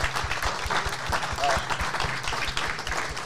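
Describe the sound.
A crowd applauds steadily for a few seconds, many hands clapping in a dense, continuous patter, with faint voices mixed into the clapping.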